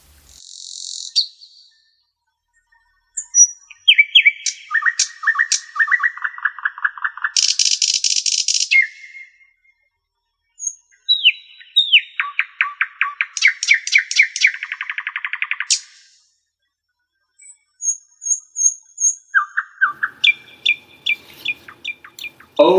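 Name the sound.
nightingale singing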